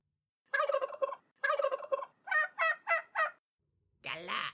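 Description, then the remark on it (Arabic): Turkeys gobble: two longer rattling calls, then four quick bursts in a row, and a final harsher, noisier gobble after a short pause. “ذهب فرخ البط البشع ليرى ديوك الحبش”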